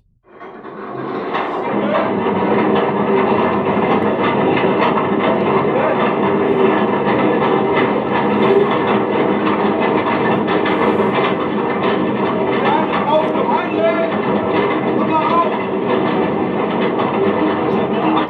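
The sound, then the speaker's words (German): An armoured face conveyor runs continuously in an underground coal mine, a loud, steady mechanical roar with clanking and grinding texture that starts abruptly and holds level throughout. “Es ist jetzt der Panzer, der da läuft.”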